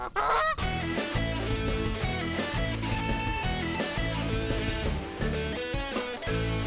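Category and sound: animal, goose honking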